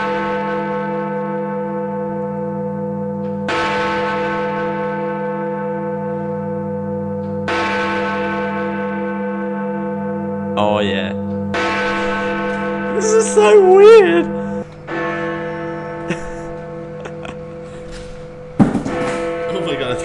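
Big Ben, the huge clock bell, bongs slowly for its final bong before a four-year silence as British MPs bow their heads, deep strikes roughly every four seconds with long ringing hums between, while a crowd murmurs and some voices rise faintly underneath.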